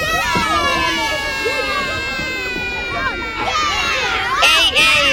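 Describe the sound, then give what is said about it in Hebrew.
A loud, dense crowd of children's voices shouting and chattering over scuffling footsteps as they run onto a tour bus, with excited high-pitched yells rising toward the end, continuous. “ילדים לעלות לאט בלי לרוץ, לא חסר לי עוד ילד שייפול על הראש.”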